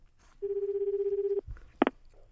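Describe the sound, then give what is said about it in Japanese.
A single long ringback tone on a phone line as a live radio show calls a listener, a steady pulsing electronic tone lasting about a second, followed by a short click and a brief burst as the call connects. “これぞ生電話というラジオですちょっとつながるほんまに聞いてんのかなおるんですかねとりあえず一体電話しましょうか”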